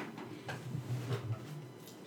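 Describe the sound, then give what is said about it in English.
A female dog licks and pulls up plastic, producing soft, irregular crinkling and scraping bursts over a low steady hum. The sounds are fairly quiet, and no one speaks. “She's pulling up the plastic. This dog is crazy, man.”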